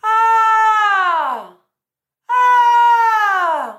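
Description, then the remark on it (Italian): A person sings two long, loud cries separated by a short pause, each sliding downward in pitch at the end like a jungle call, demonstrating a descending vocal effect at the ends of sung phrases. “L'effetto di cui sto parlando è una sorta di parabola discendente sul finale di frasi, di parole all'interno di una canzone che suona più o meno così.”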